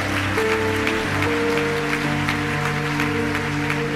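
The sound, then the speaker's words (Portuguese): An audience applauds steadily, a dense wash of clapping hands filling the whole stretch, while sustained low organ or keyboard tones hold underneath. “Se é para ele, faz melhor. Se é para mim, não precisa nem aplaudir, tá?”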